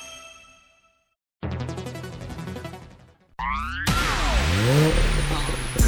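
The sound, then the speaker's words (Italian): A chime rings and fades, then after a pause a dense rumbling passage leads into a loud brand-new car's engine revving, its pitch sweeping up and down repeatedly. “Auto nuova fiammante col suono nuovo, il da Plus che si sente a tuono.”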